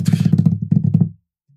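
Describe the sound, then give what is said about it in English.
A quick drum roll tapped out on a tabletop: about a second of rapid, even, thumping knocks with a low, woody tone, ending abruptly in silence. “Drum roll, please.”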